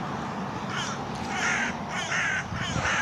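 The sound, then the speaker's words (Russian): A crow that has just flown in caws several times in a steady series of harsh calls, clear, with a faint outdoor background and no talking. “Да, вон, каркаешь, да? ворона прилетела.”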